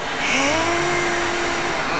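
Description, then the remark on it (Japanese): A drone's motors whir in a steady, loud electric buzz as it rises straight up, a tonal hum sliding upward in pitch early on and then holding level, with no voices. The drone has a range of about 45 km and is flown within range of Nagoya Station, Japan. “今そのまま上に上がっただけだったじゃないですか、はい、例えば東西南北、はい、進もうと思ったらあのどれぐらいの距離を飛ばすことができるそうですねこの性能このドローンの性能だと大体45キロはあそんなにですか軽く行けますね”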